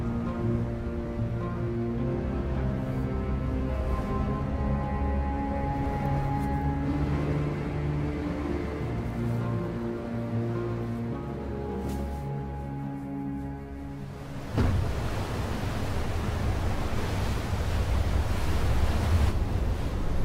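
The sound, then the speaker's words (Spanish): A gale with winds of 80 kilometres per hour, following a snowstorm, roars with a loud, steady rushing noise, at first mixed with a low sustained droning hum, then turning into a harsher, denser gusting roar for the final seconds. “La tormenta de nieve dio paso a una borrasca con vientos de 80 kilómetros por hora.”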